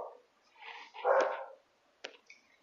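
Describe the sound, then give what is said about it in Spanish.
Female dogs bark and yelp in a short burst while firecrackers are being set off, a loud cluster of barks with whiny, whimpering tones, followed by a couple of sharp, brief yips. “Quizás las oyeron ladrar un ratito.”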